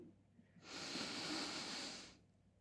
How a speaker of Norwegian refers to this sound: Så opppusten det er når vi tar et eh, rolig og dypt pust inn gjennom nesen.